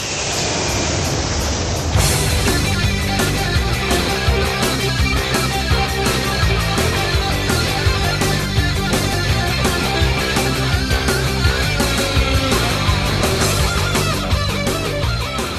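An instrumental rock guitar song plays loudly with no singing: after a two-second hissing swell, a dense full band kicks in with distorted guitar over a steady, driving drum beat.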